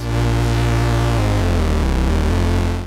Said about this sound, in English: As you can hear, it's easy to get filth out of the bass station. Even with a cleaner waveform like a triangle wave, you can add distortion, or modulate the filter with oscillator 2, add some filter overdrive to create some nice movement and colour.